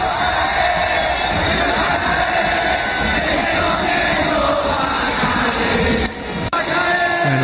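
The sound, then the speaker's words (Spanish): A huge crowd of Venezuelans at a baseball stadium chants the protest slogan 'va a caer, va a caer' ('this government is going to fall') at Maduro in unison, a dense, loud roar of many voices that carries on steadily without pause. “a ver si tenemos el, audio, de cuando le gritan esta frase de va a caer, va a caer”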